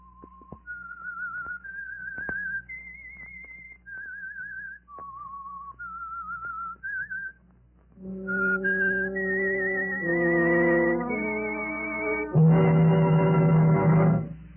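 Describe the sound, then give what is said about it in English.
An eerie whistled melody, the theme of The Whistler, rises and falls in slow, wavering notes, whistled alone at first before a swelling orchestra joins in beneath it and builds to a loud finish. “I am the Whistler.”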